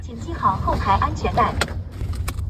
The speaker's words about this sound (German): Anschnallen bitte, sagt der Bordcomputer. Das Auto fährt ohne Fahrer, voll autonom im normalen Stadtverkehr.